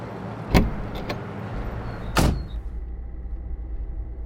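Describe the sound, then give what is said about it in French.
A taxi's door slams twice over a low, steady engine rumble, with a couple of light clicks between; afterward the taxi's hum continues alone, muffled and even. No one speaks. “Donc vous prenez un taxi.”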